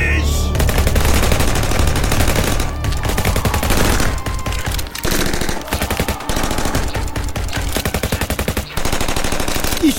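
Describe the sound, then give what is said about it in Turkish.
Sustained automatic gunfire rattles loudly throughout, rapid bursts of shots in a dense rhythm with brief pauses between volleys, and no voices can be made out; soldiers open fire on emu birds on farmland on 2 November. “Ateş!”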